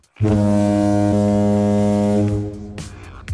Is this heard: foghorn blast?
yes